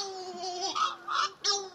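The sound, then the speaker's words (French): A Cory's shearwater's wailing, baby-like courtship calls on a moonless night, a rising and falling sequence of nasal, strained cries, fairly loud, with a few abrupt breaks between phrases. No talking. “Ce que vous avez peut-être pris pour des gémissements ou des pleurs de bébé sont les cris du puffin cendré.”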